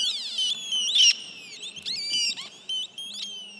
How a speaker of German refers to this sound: Und in einem weiteren Raum zwitschert, piept und blinkt es. Aber die vermeintlichen Vögel sind gar keine, erklärt die New Yorker Künstlerin Kelly Heaton. Es sind keine Vögel, sondern Schaltkreise, ganz einfach. Es ist nichts programmiert